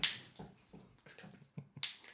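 A beer bottle is cracked open, a sharp click of the cap followed by short bursts of fizzing hiss, with a few more small clinks and rattles in between.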